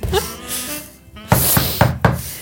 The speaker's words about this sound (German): Klopft es plötzlich äh, hart an die Türe, Musik ist aus, die Leute sind plötzlich ruhig.